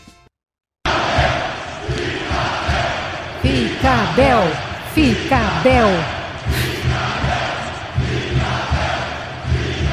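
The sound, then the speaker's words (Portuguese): A large stadium crowd of fans chants in unison for the fans' idol, a loud repeated rhythmic refrain of many voices with rising and falling pitch, over a constant roar of cheering. “Ontem os adeptos no estádio uh, Claro, é o, ídolo, da, é o ídolo da torcida. Temos aí o som.”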